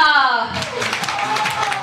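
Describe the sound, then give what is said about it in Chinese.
A voice trails off and a burst of audience applause follows at a donation pledge drive, greeting a pledge of twenty-three: a dense, steady patter of many hands clapping that carries on at an even level to the end. “二十三个，乔丹的幸运数字，掌声给到”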